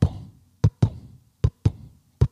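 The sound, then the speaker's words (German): A deep, booming heartbeat thumps in steady lub-dub pairs, three beats close and loud with no one speaking, like a dramatic pulse sound effect. “Das war der Puls, ne?”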